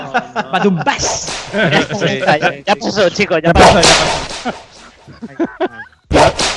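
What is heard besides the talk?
whip crack sound effect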